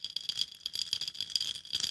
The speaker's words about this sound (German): Eiswürfel. Eiswürfel? Boah. Nein, schalt das ab, schalt das ab.